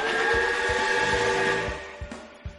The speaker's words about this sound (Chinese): 主平台舱门打开，火车头和火车身朝着舱门外驶去。